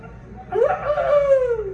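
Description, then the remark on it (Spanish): A person imitates a rooster's crow with a single drawn-out, rising then slowly falling vocal call, fairly loud, lasting over a second with no other sounds around it. “¿Cómo canta un gallo?”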